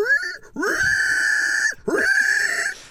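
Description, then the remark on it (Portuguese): A voice imitates a pig, making two drawn-out, strained grunting squeals, one after another with a brief gap between them. “Hum, aí de repente tem um porco só.”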